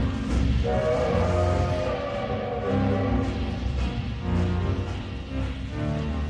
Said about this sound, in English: the train gave a sudden lurch and started moving. We were on our way home.